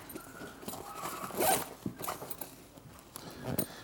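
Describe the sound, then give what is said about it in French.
A zipper is pulled open on a bag in a quick, raspy burst, followed by softer rustling and handling noises with no talking. “Je prends mon sac parce que là, je ne peux pas lire comme ça.”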